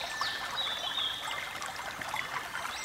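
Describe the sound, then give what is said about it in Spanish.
A river flows steadily, with a continuous bright babbling rush and a few faint high bird chirps drifting over the water; no one speaks. “Te estás bañando sola en el río y de repente sientes que alguien se acerca.”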